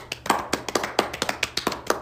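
A short burst of clapping: sharp, crisp claps in a quick, slightly uneven rhythm, about seven per second, fairly loud with no voices over them, like a small round of applause.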